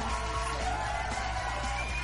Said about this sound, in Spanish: Otro aplauso chingado por el pinche gusto de volvernos a ver.